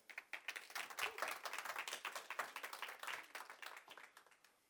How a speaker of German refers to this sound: Der Applaus war Wahnsinn. Aber danke für die wenigen.